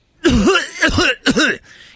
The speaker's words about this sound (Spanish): el otro día estaba tosiendo ahí, ¿eh?